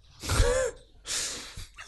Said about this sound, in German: Entschuldigung, ich muss kurz den schlafenden Hund wecken, weil der schnarcht